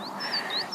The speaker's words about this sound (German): Die Bergspitzen sind noch so richtig puderzuckrig bedeckt und Ihr könnt vielleicht ein bisschen die Vögel im Hintergrund hören.